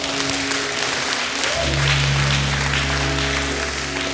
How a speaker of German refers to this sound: Ich kann einen kleinen Applaus dir geben. Einen kleinen, auch einen großen. Come on.